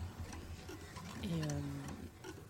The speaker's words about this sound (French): C'est marrant, le, début m'a fait penser du coup à l'artiste Christian Marclay et le film The Clock. On a l'impression que cette horloge continue.